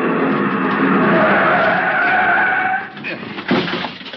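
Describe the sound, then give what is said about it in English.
A car brakes hard on a street, its tires screeching loudly in a long, sustained skid for nearly three seconds before it halts against the curb, followed by a few short bumps and rattles. “The other driver had jammed on his brakes and finally skidded to a stop against the curb.”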